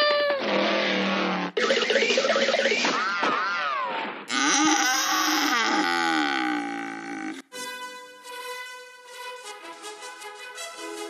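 A bull running across a field bellows loudly several times in a row, each call a strained, drawn-out roar with rising and falling pitch, clear with no talking over it.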